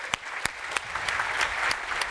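A crowd applauds steadily for a couple of seconds, a dense patter of many hands clapping with a few sharper, louder claps standing out near the front.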